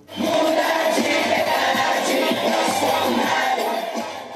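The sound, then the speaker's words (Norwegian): A large crowd of Jair Bolsonaro's supporters in Brazil cheers and roars celebrating his election win in late October, a dense, loud and steady wash of shouting voices that holds for several seconds without a break. “Tilhengerne til Jair Bolsonaro jubler etter valgseieren her i Brasil i slutten av oktober.”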